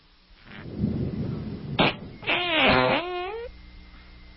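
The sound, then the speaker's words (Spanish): A comedic fart sound effect plays on its own as a joke about gases: a low, raspy sputter, then a short burst and a loud squealing tone that slides downward before cutting off. “Ahora, vamos a escuchar... Lo que son gases. Gases.”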